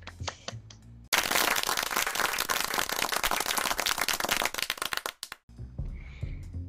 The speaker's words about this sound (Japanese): ありがとうございました。パチパチパチ。ありがとうございました。パチパチパチ